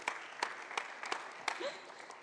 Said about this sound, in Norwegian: Well done! Gi dere sjøl en klapp.